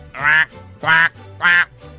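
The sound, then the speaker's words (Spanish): A duck quacks three times in a steady rhythm, each quack loud and nasal, with short pauses between them and no talking. “Y el pato se fue.”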